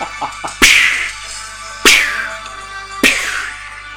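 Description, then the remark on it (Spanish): Three sharp riding-crop lashes crack out at a steady, unhurried pace. Each snap is loud, with a bright ringing tail, over a faint low hum and a couple of softer taps at the start. “Mira, el latigazo sado de, de la fusta”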